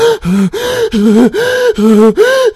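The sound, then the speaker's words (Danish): A woman sitting in a car pants and gasps because she is out of breath, in quick, loud, alternating inhales and exhales, about six heavy breaths in a steady rhythm, with no talking. “Samtidig med, at vi har lyden af hende, kvinden, der sidder i bilen og stønner, fordi hun er forpustet.”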